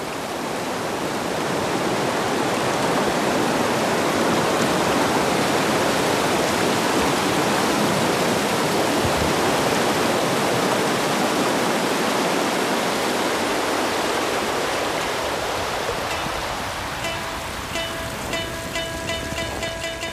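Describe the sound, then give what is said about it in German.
A loud, steady roar of a waterfall with an ice-covered rock ledge in its midst fills the scene, a dense rushing wash of water that holds constant throughout; toward the end a faint tonal ringing emerges above it. No one speaks. “Auf einem völlig mit Eis bedeckten Felsvorsprung inmitten des tosenden Wasserfalls sitzt ein nackter Asket.”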